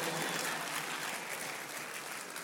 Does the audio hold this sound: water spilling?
no